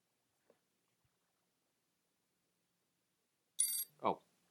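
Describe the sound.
A voice mimics a telephone ringing, a brief buzzy trill followed by a rising warble, fairly loud, after several seconds of near silence.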